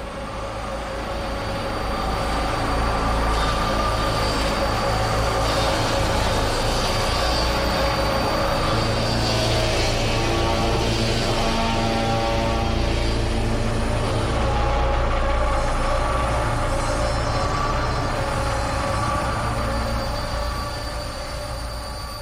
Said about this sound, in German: Aber nicht mit riesigen Orchesterarrangements, das wäre bei der Story auch echt ein Overkill. Düstere Ambient Sounds passen da schon viel besser. Gespickt mit Field Recordings direkt aus dem AKW.